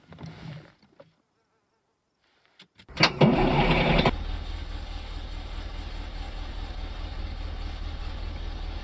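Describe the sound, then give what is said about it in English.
After a brief quiet gap, a school bus's large engine cranks with a loud burst of noise, catches, and settles into a steady, buzzing low idle that continues to the end, fairly loud. “Wait till you hear the engine sound.”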